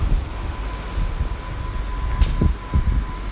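A train rolls by, a steady low rumble with a few clacking knocks and a thin, faint whine running through it; no one speaks.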